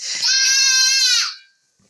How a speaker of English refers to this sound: and so you guys have probably just heard my daughter yell right yes. through the speaker there.